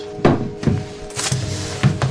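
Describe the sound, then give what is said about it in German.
A stuck drawer at the bottom of a small living-room cabinet with glass-door shelves is tugged open in several jerks: a series of dull knocking thuds with a short scraping rasp midway, irregular and fairly loud, with no one speaking. “Links und rechts sieht man vollgeräumte Fächer hinter Glastüren, unten sind Schubladen. Das klemmt.”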